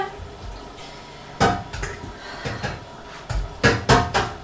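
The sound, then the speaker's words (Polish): A cooking pot that held cake batter is handled and set to soak, with a series of sharp metallic clanks and knocks, some ringing briefly, coming irregularly over a few seconds. No one speaks. “Myślę, że teraz nie pozostaje nam już nic innego, jak tylko zająć się przełożeniem woreczek e, i namoczeniem garnka ciasta, co później w znacznym stopniu ułatwi jego umycie.”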